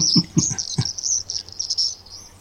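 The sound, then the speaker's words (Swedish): A river warbler's song: a steady, high, insect-like buzzing reel that runs unbroken throughout, with a few soft low thumps near the start and no voices. “Men det är ju flodsångare i bakgrunden.”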